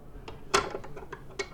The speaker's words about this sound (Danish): Jeg tror jeg bare lige, at jeg vil lukke vinduet